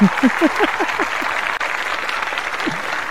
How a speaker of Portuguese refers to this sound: Palmas pro nosso âncora também, né?